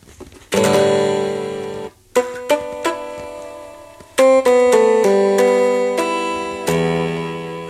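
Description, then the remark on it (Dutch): Bright electronic synth tones from a 1980s Casio guitar synthesizer with rubber strings, playing a sustained chord and then a series of short, stepped notes with sharp attacks, fairly loud with no talking. “dan klinkt, als je dat aanzet, en kunnen allerlei klankjes pakken.”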